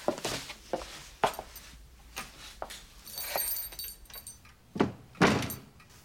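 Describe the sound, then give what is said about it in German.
Keys jangle and clink several times amid a series of door sounds in the dark hallway of a villa as a woman puts down a handbag, folder and bunch of keys at the coat rack: sharp knocks, a latch and a heavier thud near the end, with no one speaking. “Sie schaut bedrückt und legt ihre Handtasche, die Mappe und einen Schlüsselbund an der Garderobe ab.”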